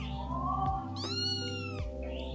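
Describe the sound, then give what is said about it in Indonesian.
A kitten meows in a long, drawn-out, high-pitched cry under a tree in front of the gate of a boarding house at night, clear, with a softer mew at the start and a steady low hum underneath. “Apakah meong-meongan anak kucing ini adalah jawabannya?”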